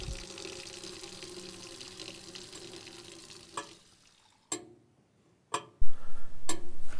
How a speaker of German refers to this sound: Ich muss mal. Geheult wird draußen. Schnell aufs Klo, kaltes Wasser ins Gesicht.